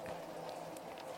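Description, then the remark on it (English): Steady, dense heavy rain pattering continuously outside in Southern California, a broad hiss with scattered drop impacts, heard from indoors at a moderate, even level with no voices. “Hey, everyone listening, we've got it's raining like a motherfucker outside.”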